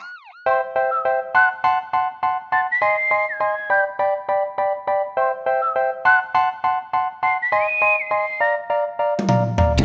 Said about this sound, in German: ja, wunderschön natürlich der Titelsong. Ach ja, wunderbar.